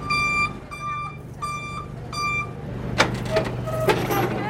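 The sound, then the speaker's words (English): A delivery truck carrying a manatee is directed in with a run of steady reversing beeps over a low idling engine rumble, then its back door is opened with a few loud metallic clanks and a rattle. “They've just opened the back door, and there is a rubbery looking manatee inside.”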